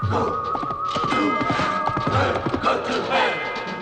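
Horse hooves gallop across a track in a fast, steady run of loud, close thuds over a dense, rumbling background, with a brief high whinny-like cry near the start.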